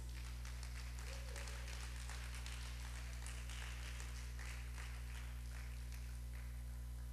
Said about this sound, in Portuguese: Dá para aplaudir Jesus por isso?